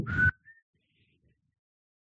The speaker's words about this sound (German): Ich kann nicht lauter pfeifen, verdammt nochmal. Ich habe schon gepfiffen. Man hat nichts gehört.